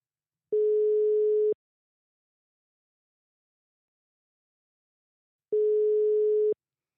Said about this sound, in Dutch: Zullen we maar eens gaan bellen? Lijkt me leuk. Kijken of hij opneemt? Ja. Oké, okay, gaan we.